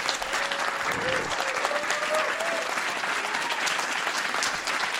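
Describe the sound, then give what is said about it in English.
Sustained applause from an audience for Mr. Brooks, a guest on the show, a dense steady wash of many hands clapping at an even loudness for several seconds, with faint cheering underneath. “A big round of applause for Mr. Brooks.”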